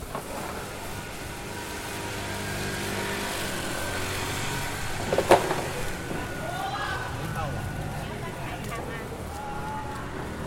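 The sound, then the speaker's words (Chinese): Night street ambience beside a small road: a steady low engine rumble and broad traffic hiss run throughout, with a brief sharp knock partway through and what may be faint, indistinct voices. “我站在马路旁，这是一条呃小街道上面。”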